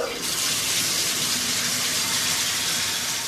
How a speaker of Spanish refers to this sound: Cerrad el grifo. Siempre igual.